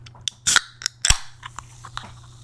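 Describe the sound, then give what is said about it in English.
A cold drink being opened in a break room: a few sharp clicks, then a quick fizzy crack and hiss, followed by softer scattered clicks and taps, with no one talking. “All right, let's go to the break room, get something cold to drink, and see what's happening in the break room, shall we?”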